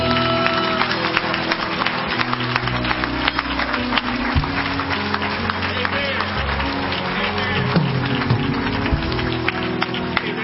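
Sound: audience hand clapping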